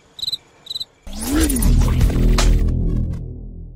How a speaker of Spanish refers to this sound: cri, cri. Ponga grillos aquí.